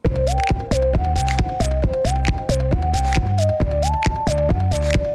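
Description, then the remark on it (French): A man taps on his cushions to make music in a steady, repeating rhythm of soft thumps, woven into a loud musical loop with a sustained melodic tone and a pulsing low bass line. “Il tape ses coussins.”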